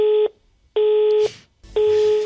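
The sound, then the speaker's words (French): Three loud, steady electronic beeps, each about half a second long, evenly spaced with short pauses between them, like a telephone voicemail beep tone. No voices. “Vous pourrez envoyer un message après le bip sonore.”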